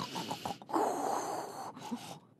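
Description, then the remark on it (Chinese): A voice imitates the sun and small animals snoring, starting with a few short breathy snorts and followed by two long, rough, raspy snores, fairly loud, with no talking. “那不一会儿，太阳和小动物呢都打起了呼噜。”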